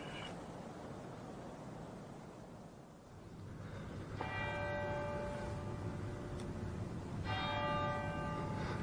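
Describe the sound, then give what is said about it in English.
A church clock bell strikes twice, two loud, ringing tolls about three seconds apart, each with a long, shimmering decay, over a steady hiss of background noise. “Two o'clock.”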